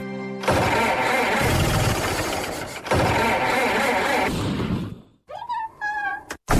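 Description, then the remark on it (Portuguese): A rough, sputtering car engine, damaged by the wrong oil being put in it, labors loudly in two long cranking bursts, then cuts out and gives way to a few strained, whining squeals. No one speaks. “Pus um óleo qualquer no motor e estraguei isto tudo.”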